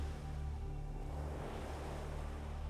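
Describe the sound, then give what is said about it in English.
Steady rolling surf at a moderate level, a continuous wash of turquoise ocean waves rolling onto a beach shoreline, with a low rumbling undertone and no distinct breaks, heard alone without voices. “as the waves roll in and you begin to really relax now.”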